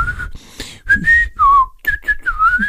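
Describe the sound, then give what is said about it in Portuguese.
A person whistles in wavering, tuneless bursts, the pitch sliding up and down without any melody, broken by short breathy gaps. “Respirar pela boca e assobios descontrolados”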